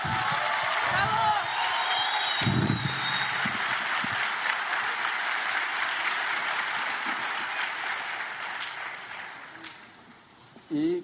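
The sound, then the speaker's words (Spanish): Sustained applause from a large audience for the premiers of the Yubare organization, dense and steady with a few whistles and shouts mixed in, gradually thinning toward the end before a brief final burst. “Un aplauso, por favor, a todos los premiers de esta organización de Yubare.”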